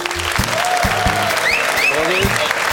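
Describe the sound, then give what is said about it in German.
Steady, dense applause from a studio audience for Stefan Effenberg fills the whole stretch, loud, with a few whoops and cheers rising over the clapping. “Und ich bin gespannt auf den Applaus für Stefan Effenberg.”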